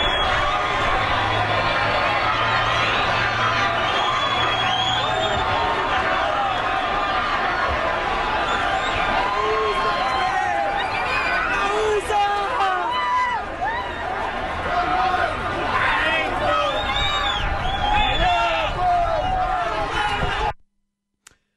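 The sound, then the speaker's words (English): A large crowd rushes across a border bridge into the U.S., many voices shouting and calling over one another in a loud, constant roar of babble, with scattered excited cries throughout, cutting off abruptly at the end. “Another idea is to just uh, be in a crowd, and make a rush.”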